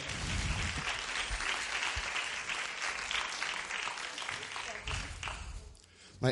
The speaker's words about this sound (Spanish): Aplauso para ella.